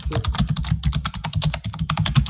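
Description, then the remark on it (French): Fast typing on a computer keyboard as a web address is entered into an online chat: a steady, slightly uneven stream of crisp key clicks for a couple of seconds, fairly loud, with no one speaking. “Alors, je vous mets l'adresse dans le chat.”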